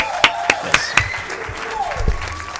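A short applause sound effect that a speaker plays for himself: a few sharp, evenly spaced claps ring out loud, then fade into a low murmur of background noise.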